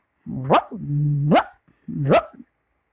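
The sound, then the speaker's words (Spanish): A small dog, Toto, gives three sharp yaps, the middle one stretched into a longer whiny growl before snapping upward, with brief silences between them and no other sounds around. “Decidió acompañar al espantapájaros después de tener que separar a Totó varias veces, ya que en cuanto se descuidaba, el pequeño perro le mordía los tobillos de paja.”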